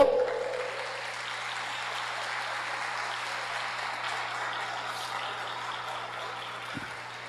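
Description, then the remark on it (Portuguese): An audience at a church service claps together for the Lord in a steady, dense wash of applause that holds at an even loudness for several seconds, with no voices heard, over a faint low electrical hum. “Você pode dizer amém e dar um grande aplauso ao Senhor?”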